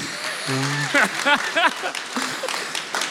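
Audience applause, a dense steady patter of many hands lasting about three seconds, with a few voiced whoops and shouts rising above it partway through.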